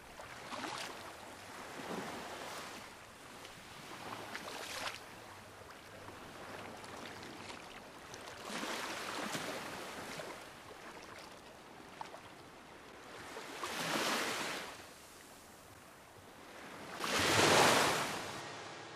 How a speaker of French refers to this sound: La mer résonne dans mes battements de cœur